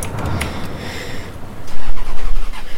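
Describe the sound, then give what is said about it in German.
A large bus engine cranks and catches in the middle of a forest. Its low rumble swells suddenly louder partway through and settles into a steady, heavy idle. “Er ist an, er ist an, er ist an. Der Bus ist an.”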